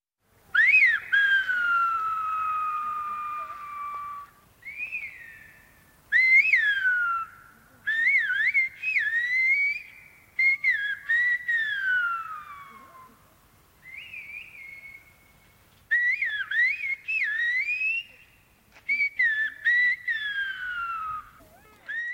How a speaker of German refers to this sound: Die Kommunikation per Pfiff bietet sich in La Gomera an, wegen der speziellen Landschaft. Da Gomera eine ähm, ziemlich gebirgige Gegend mit tiefen Schluchten ist, sind die Wege auch lang und da pfeift man sich lieber über die Distanz,